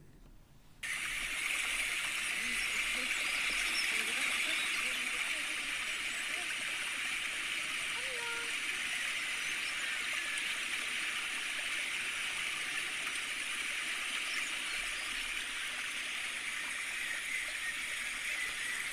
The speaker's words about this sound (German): Ich habe eine Audiodatei angehängt mit dem Plätschern des Bächleins, das durch die Schrebergärten führt.